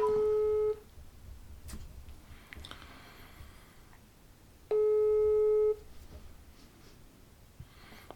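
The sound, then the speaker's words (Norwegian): Two rings of an outgoing phone call, each a steady electronic tone lasting about a second, separated by roughly four seconds of quiet line hiss. “Vær så snill å ta telefonen.”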